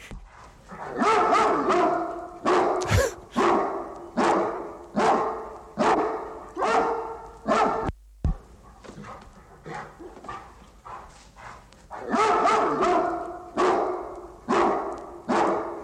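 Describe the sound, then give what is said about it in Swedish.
Dogs bark steadily in a long run of sharp, evenly spaced, loud woofs, with a brief pause midway before the barking resumes at the same rhythm, played from the 1971 sound effects record Sound Effects Volume 11: Beware of Dog. No one speaks. “Alltså en ljudeffektskiva med bara skällande hundar.”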